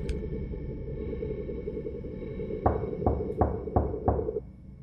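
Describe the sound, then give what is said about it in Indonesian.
Five slow, dull knocks on a door at night land in a steady, unhurried run toward the end, heard over a constant low droning hum with no voices. “Ketokannya itu pelan tapi terus-terusan.”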